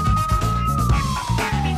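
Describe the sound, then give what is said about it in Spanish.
A loud police car siren wails, holding a steady high tone before sliding slowly downward, over a low engine-like rumble with no voices. “llegaron las patrullas.”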